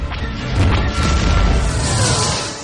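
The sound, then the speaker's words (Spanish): Loud, dense barrage of booming impacts and crashing blasts, with rumbling low end and sharp bursts overlapping continuously, like laser fire and explosions: starfighters firing around a settlement. No one speaks. “Corren entre los disparos de los cazas.”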